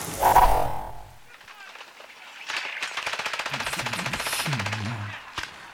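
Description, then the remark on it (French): Video game gunfire plays as people on holiday play video games while it rains outside: a rapid, steady rattle of automatic shots at moderate volume for several seconds, after a short vocal sound at the start. “T'es sérieux là non mais, euh, vous pouvez pas arrêter de geeker là un peu là Putain, on est en vacances et vous jouez aux jeux vidéo”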